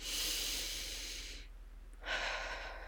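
Two slow, deep calming breaths: a long airy inhale followed by a pause, then a second breath of air, soft and unhurried with no talking.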